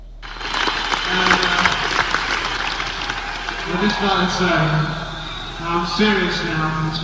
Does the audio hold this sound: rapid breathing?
no